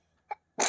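A child sneezes once: a short sharp intake followed by a loud, breathy burst. No one talks.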